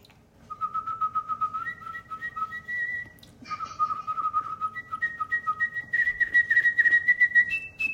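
A bright, melodic tune whistled for a BMW Mini TV advert, with sustained notes that leap between pitches, a brief pause midway, then a livelier run of higher notes. No talking accompanies it.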